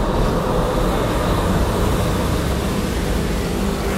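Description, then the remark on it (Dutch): A simulated steady, muffled rumble of road traffic driving through a snow-covered street, dominated by low tones and softened in the highs, continuing without pause for the whole stretch, with no voices. “En hier hoor je hetzelfde, maar dan met sneeuw.”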